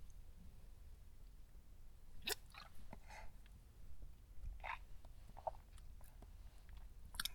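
Quiet mouth sounds: a few soft wet slurps and gulps scattered over several seconds as someone takes sips of coffee and swallows, with no talking.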